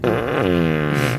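A single drawn-out, buzzy fart, loud, lasting just over a second with a wavering, reedy pitch before cutting off.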